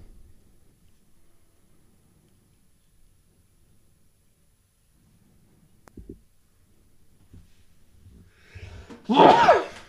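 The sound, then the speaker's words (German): A single loud, sharp sneeze bursts out near the end after a quiet stretch with faint background murmur and a brief click. “Gesundheit.”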